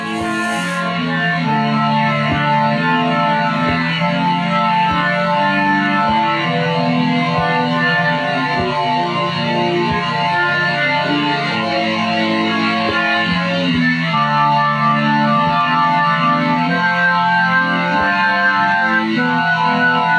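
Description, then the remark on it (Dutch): An organ, played by John on track 8 of a band's recording, holds long, steady chords that shift slowly from one to the next, playing loudly and evenly throughout with no pauses and no voices. “En die gaat dus zelf op de orgel bezig, op spoor 8.”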